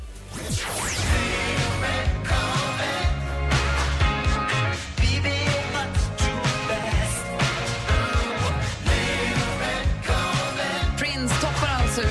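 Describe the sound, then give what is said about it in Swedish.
A full, dense pop song from the US chart plays at a steady, loud level for about twelve seconds, with a driving beat, bass and layered instruments and no talking over it. “USA-listan med …”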